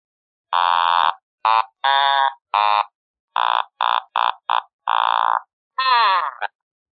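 A buzzy, reedy fretless instrument, switched to its low voice, plays a short heroic-sounding melody of about eleven distinct notes, some short and clipped, ending on a wavering, sliding pitch. It is fairly loud, with no talking.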